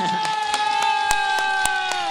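audience applause and cheering

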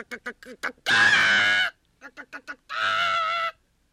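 hen clucking

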